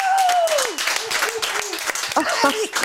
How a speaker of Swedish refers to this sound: Applåder!